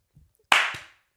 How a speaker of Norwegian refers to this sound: Kort applaus.